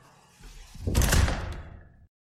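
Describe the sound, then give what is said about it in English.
A door is pushed shut, a rumbling slide that swells into a loud whoosh and thud, then fades into a short hiss before silence. “Okay, let's shut the door”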